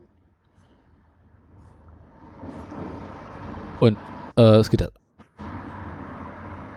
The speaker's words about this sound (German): Hast du das Fenster offen oder wie? Ja. Man hört da was. Ja, mal. Da flog gerade ein LKW durch meine Kopfhörer durch.